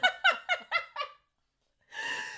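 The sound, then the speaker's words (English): A person's voice makes five short, rhythmic grunting bursts, falls silent briefly, then begins a drawn-out, moo-like tone, a fairly loud attempt to moo while pushing on the toilet that turns into grunting. “so I tried to moo and it just turned into grunting.”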